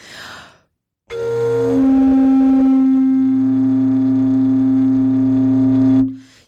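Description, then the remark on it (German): A deep, sustained foghorn-like tone, an instrument imitating the echo of a ship's siren, holds loudly for about five seconds over a low droning undertone, after a brief breathy rustle. “Und ähm, da bin ich mit meinem Petzold-Instrument unter anderem das Echo von Schiffssirenen.”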